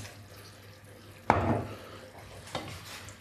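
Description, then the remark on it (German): Food with leek and garlic lands in a hot pan to be fried, with a sudden burst of sizzling that settles into a steady crackle, followed by a second scrape or stir a moment later; no one speaks. “So, das braten wir jetzt in der Pfanne an mit dem Lauch und dem Knoblauch.”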